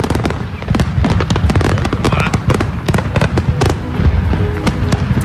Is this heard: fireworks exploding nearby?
yes